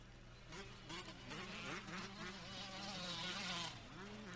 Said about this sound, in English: that's scads of dirt bikes